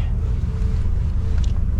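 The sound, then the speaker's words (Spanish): An electric Ford Mustang, made in the United States, is driven in Mexico by US Ambassador Ken Salazar. It moves with a steady, loud low rumble of road and wind noise, constant throughout the short stretch with no talking. “Bueno, ahí va manejando este Mustang, el embajador de los Estados Unidos, y presumía también este carro, y lo presumió aquí en México”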